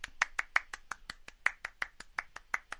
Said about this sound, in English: Give another another applause.